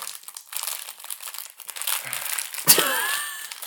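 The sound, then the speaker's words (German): Loud crinkling of plastic packaging being opened, a steady rustle of crackles that ends in a sharp tear near the end, with no voices over it. “Oh, das ist bestimmt schön in den Ohren, wenn das hier so knistert.”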